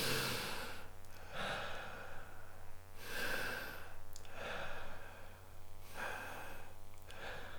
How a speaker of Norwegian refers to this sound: Uh, og så tok han tre lange, litt sånn rolig sånn pust. Mm. Ta tre lange pust med meg.